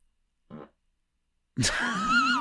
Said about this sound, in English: why did you fart?